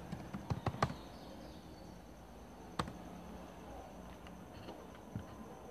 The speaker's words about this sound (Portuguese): Que é alguns comandos que representam as funções, que é por exemplo o comando vou estar tá, tá, digitando aqui, vou estar tá mudando para texto, funções.